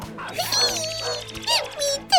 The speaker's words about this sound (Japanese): 前を見てみるとなんとそこには恐ろしい大型犬たちが群れをなしていましたクルルは驚いて地面にへたり込みます犬たちはあちこち見回るようにしてうろついています